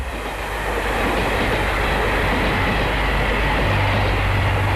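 A train rolls steadily along the tracks, a continuous rumble with a rhythmic clatter of wheels on rails. It stays loud and even throughout, with no voices.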